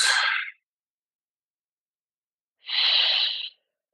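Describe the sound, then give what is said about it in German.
Two audible breaths during a slow breathing exercise, separated by a long pause: a short airy exhale at the start, then a fuller, steady breath of about a second, with no talking. “Ruhiger jetzt durch die Ausatmungsphase geht.”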